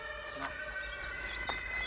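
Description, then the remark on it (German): An emergency vehicle's two-tone siren wails ahead of a moving car, its steady harmonic tones fairly faint over a low road rumble as the car drives away from it, with no one speaking. “Ja, da ist auch das Martinshorn jetzt auch vor uns und jetzt äh, entfernen wir uns wieder davon.”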